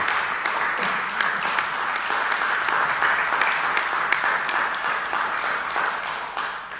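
A crowd applauds steadily in thanks to the face and voice of the FST for his work. Many hands clap in a dense, continuous patter that holds a fairly even loudness for several seconds before tapering off slightly at the end.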